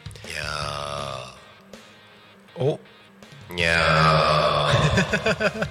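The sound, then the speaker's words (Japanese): A person's voice imitates a boss cat, giving two drawn-out, wavering meows with a brief pause between them. The second call is louder and longer and ends in a rough, growly trail. “天の声さん今日は猫猫の声さんになったね”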